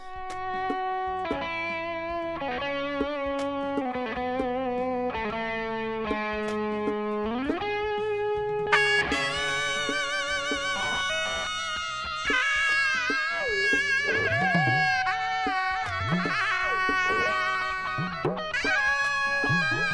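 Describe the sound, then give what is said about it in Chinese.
Distorted electric guitars in a song's solo section trade bending, sustained lead lines, interlocking over and around one another in a loud, continuous passage with no voices. “电吉他跟唢呐是交叉着来的，所以那一段我觉得超级厉害。”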